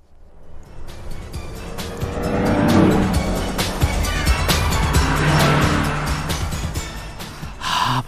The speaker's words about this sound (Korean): 자, 옆에 차가 지나갑니다. 차창 열어놓고 노래를 듣고 있네요. 차 소리에 묻혀서 들렸다 안 들렸다 해요. 옆 차에서 과연 어떤 노래를 듣고 있을까요? 들어볼까요?